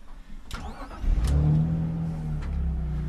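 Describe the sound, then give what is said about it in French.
The six-cylinder, 170-horsepower engine of an E46 323 Ci three-door coupe cranks briefly, catches and fires up, then settles into a loud, steady, deep rumble with a slight rev, no voices present. “C'est un moteur 6 cylindres, ça fait 170 chevaux. Et euh, quand on va la mettre sur les stages, je pense qu'elle va être plus près des 200 chevaux que des 170.”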